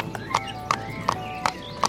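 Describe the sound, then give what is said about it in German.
Donkey hooves clop at a steady, even pace, with five sharp knocks spaced about every third of a second, clear over a light background hum. “ein Esel, ein Esel ist weg, ein Esel ist weg.”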